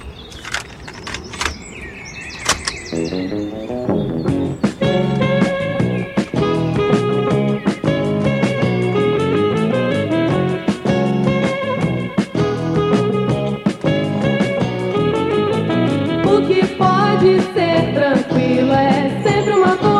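A rock band's first recorded song, played from a tape: a brief, sparse intro gives way to a full band with a steady, driving drum beat, bass and bright guitars, played loud throughout.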